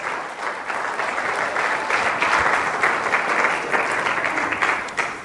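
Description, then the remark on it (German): An audience at a Sunday service breaks into warm, sustained applause to welcome a couple, a dense patter of many hands clapping steadily for about five seconds at an even, fairly loud level with no voices over it. “Komm, wir geben ihnen auch nochmal einen ganz herzlichen Applaus.”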